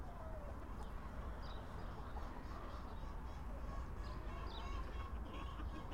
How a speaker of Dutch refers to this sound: Op de achtergrond hoor je waarschijnlijk ook eh, de kippenkakelen die hier eh, rondlopen. Een grote haan loopt parmantig langs de hennetjes en houdt alles goed in de gaten.